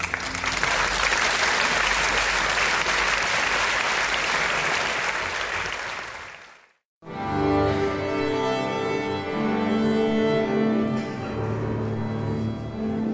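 A large audience claps loudly and steadily for several seconds, the applause fading out into a brief silence before instrumental music begins.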